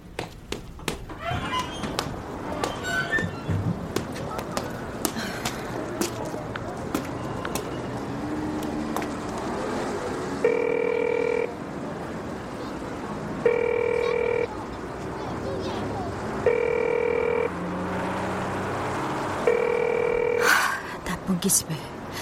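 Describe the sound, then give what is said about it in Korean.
A telephone rings four times at an even pace, each ring a clear electronic burst with a pause between, going unanswered as a mother calls her daughter, while people chatter and bustle in the background. “왜 엄마 전화를 안 받아?”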